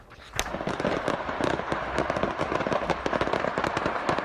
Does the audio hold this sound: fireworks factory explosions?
yes